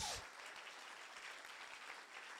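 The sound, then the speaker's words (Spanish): A crowd breaks into steady, dense applause for Jesus, many hands clapping together in a continuous hissing wash that holds at an even level throughout, with a brief louder burst at the very start. “Eso merece un aplauso fuerte a Jesús.”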